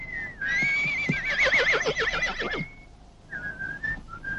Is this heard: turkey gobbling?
no